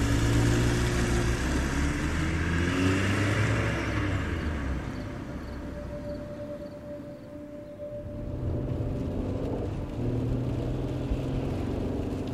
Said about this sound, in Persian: ماشین رو زدم تو دنده و حرکت کردم همینطوری بی هدف را افتادم